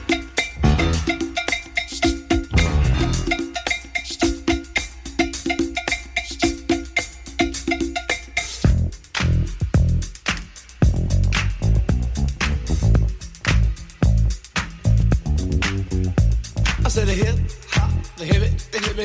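A hip hop song intro plays loud, with a steady punchy beat, crisp percussion hits and a driving bassline, and no voices yet over the groove.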